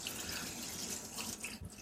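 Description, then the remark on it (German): Running tap water splashes steadily over an immersion blender being rinsed, a continuous hissy wash of water with small fluctuations, ending in a brief louder clunk. “Gerade erstmal hier den Pürierstab sauber machen, wenn man das nämlich nicht äh, da.”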